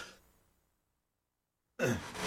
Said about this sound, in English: And cough.